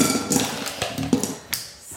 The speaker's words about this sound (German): Jetzt kommen hier erstmal die Eiswürfel rein. Wundert euch nicht über die Geräusche. Ja, ich mache meine Eiswürfel in einer alten Toffifee-Packung.